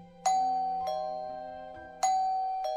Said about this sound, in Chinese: 大脚丫子也来按门铃了